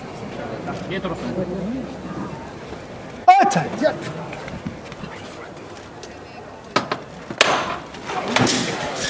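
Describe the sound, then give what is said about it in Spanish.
A sharp, loud knock from the knocker of a processional float in Seville, struck by the Archbishop of Seville, rings out once, resonant over a murmuring crowd and voices, with more noisy bursts following a few seconds later. “Toca el martillo el arzobispo de Sevilla y se va la Virgen del Dulce Nombre al cielo”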